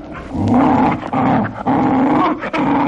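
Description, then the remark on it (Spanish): A delivery man's dog, agitated on seeing a man, growls low and steadily, the rumbling snarl rising in a few brief surges with short breaks between, continuous for the whole stretch with no talking. “Pero el perro del repartidor, que había estado olfateando al posadero, en cuanto vio al hombre, se agitó nervioso.”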